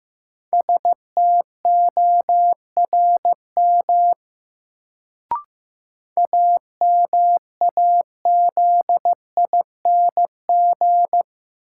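Morse code sent at about 15 words per minute, a word from a new-word drill of the top 1500 words: a steady mid-pitched tone keyed into short dots and longer dashes, in two bursts separated by a pause with a brief click. No voices.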